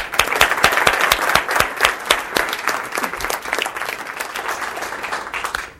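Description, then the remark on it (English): Warm audience applause welcoming speaker Sue Decker fills the room, many hands clapping steadily and fairly loudly for several seconds, then beginning to taper off near the end. “So uh, let's give her a big one warm welcome, uh, Sue Decker.”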